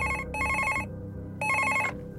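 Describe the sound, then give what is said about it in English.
A telephone rings in two bursts of a few rapid, bright trills each, with a short pause between. The ringing is clear with no talking. “A few weeks after his abrupt exit from S4, he received a strange phone call out of nowhere.”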